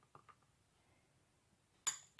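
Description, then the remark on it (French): A large, partly filled spoon taps softly against an ice cube tray a couple of times as blue liquid is carefully poured in, then after a quiet pause gives a sharper clatter and another clink. No one speaks. “Pour ne pas en mettre partout, moi, j'utilise une grosse cuillère que je remplis pas totalement et que je verse délicatement”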